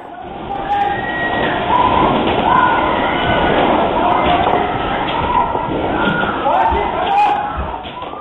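A building in Bayraklı, İzmir, shaking in a magnitude 6.6 earthquake, recorded by an advertising agency's security cameras: a continuous loud rumble with rattling, banging and thuds throughout as desks and cabinets move violently and objects topple, while employees scream and shout in panic over the clatter.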